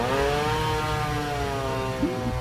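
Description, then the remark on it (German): A chainsaw drones steadily as it cuts up a huge piece of wood in front of a house, its engine pitch drifting slightly as it bites into the wood, with a brief rev near the end; no voices. “Er zerlegt mit einer Kettensäge ein riesiges Stück Holz.”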